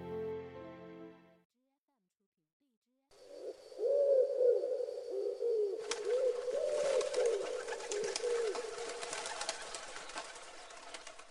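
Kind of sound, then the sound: bird, pigeon cooing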